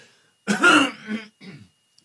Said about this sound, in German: Ich muss mich nochmal räuspern, bitte Sekunde.